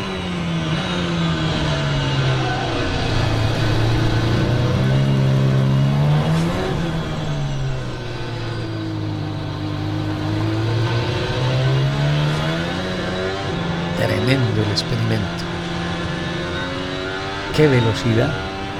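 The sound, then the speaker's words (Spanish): A Formula 1 race car engine revs loudly and continuously, its high whining pitch climbing and dropping in repeated sweeps, with a few sharp blips and gear-shift breaks near the end. “Una cosa es observarlo, otra cosa es escucharlo y allí está, con semejante recorrido para lo que será la Fórmula 1.”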